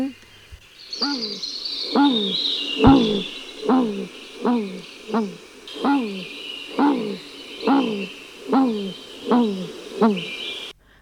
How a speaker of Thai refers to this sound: และการร้องของนกฮูกก็เป็นการประกาศอาณาเขตของตัวเอง เป็นคำเตือนให้กับนกฮูกตัวอื่นๆว่า ถ้าเธอได้ยินเสียงของฉันแล้วแล้วก็จงอยู่ห่าง ๆ นี่มันเขตหากินของฉัน